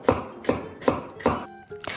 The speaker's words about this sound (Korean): 이것저것 썰고, 보글보글 끓이는 소리가 났더니, 완성!